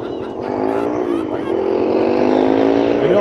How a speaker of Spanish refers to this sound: Sí se oye por ahí un murmullo, güey, pero se oye más el ruido del camión.